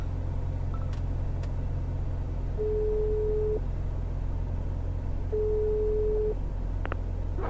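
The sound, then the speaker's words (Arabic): Two long, steady ringback tones of a phone call, each about a second, separated by a pause, sounding over a constant low rumble like an engine or car interior; a few faint clicks occur. “خليني احاول اتصل على اسلام مره ثانيه”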